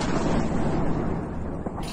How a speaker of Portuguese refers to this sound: ataques aéreos, ataques por terra, ataques por mar, bombas,